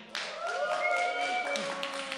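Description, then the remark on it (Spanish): An audience at a live show applauds when the host asks who has been to Colombia or is from Colombia. The applause breaks out and holds steady for about two seconds, a dense wash of clapping with high whistles and cheering voices threaded through it. “A ver, por aplauso, ¿quién ha ido a Colombia o quién es de Colombia?”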